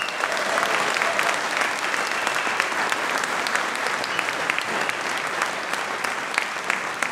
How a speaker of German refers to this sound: Dein Applaus. Danke. Danke. Danke. Dankeschön.